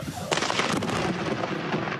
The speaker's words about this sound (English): A huge bolt of lightning hit nearby